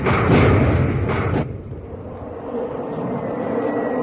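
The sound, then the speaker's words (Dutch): A loud, steady roar of white, stick-shaped aircraft with rocket wings passing overhead, strongest in the first second and a half, then easing into a continuous rumbling drone. No voices are heard. “Witte vliegtuigen, stokvormig, raketvleugels.”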